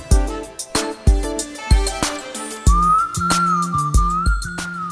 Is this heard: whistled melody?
yes